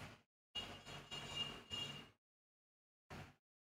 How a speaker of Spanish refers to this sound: Hasta, hasta, el claxon le mentó la madre a los Lakers. Traigo un desmadre afuera de mi casa, disculpen, chavos.